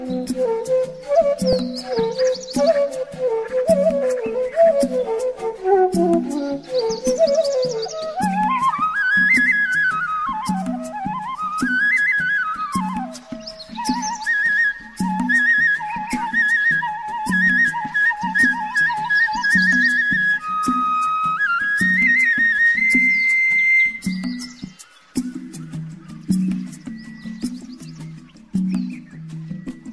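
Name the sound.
flute playing a tune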